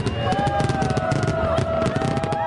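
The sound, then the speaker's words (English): Fireworks over the Hudson River crackle and pop in a dense, continuous barrage, with thin whistling tones gliding over a low rumble, fairly loud throughout. “and was greeted with fireworks over the Hudson when it opened on Broadway.”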